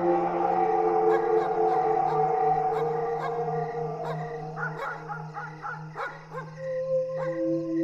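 A long, wavering monstrous roar, like a person's harrowing scream combined with a wolf's howl, rings out loud over a steady low drone and echoes across a whole region, broken by sharp crackling snaps near the end.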